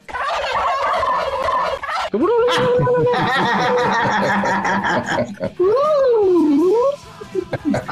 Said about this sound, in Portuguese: Maravilhoso, peru brigando, maravilhoso. O famoso solo glu-glu.